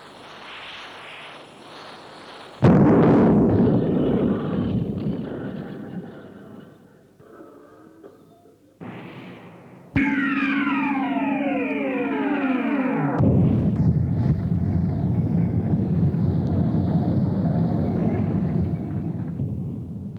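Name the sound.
explosions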